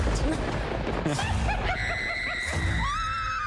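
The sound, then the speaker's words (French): Shrill screams of terror rise and hold over a dense, noisy commotion, loud, with several overlapping cries climbing in pitch toward the end. “vous entendez des mm. cris de terreur,”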